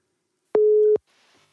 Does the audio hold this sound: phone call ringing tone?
yes